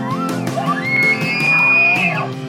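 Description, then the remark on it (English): An elk bugles once, loud: a rising glide into a long, high, piercing whistle that holds steady before breaking off, with a rough, throaty undertone beneath it. “When I came out west and heard my first bugle, I was hooked.”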